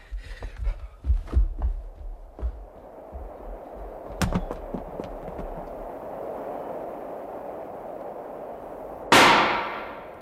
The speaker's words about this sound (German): Das war ein Warnschuss. Bleiben Sie stehen, sonst knallt's wieder.